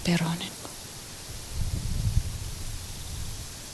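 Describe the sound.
Aspen leaves rustle in the wind as a steady, airy hiss, with a low gust of wind swelling through the middle. A brief voice fragment sounds at the very start.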